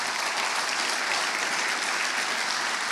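A crowd gives a big round of applause, a dense wash of clapping that stays loud and even throughout, with no voices standing out above it.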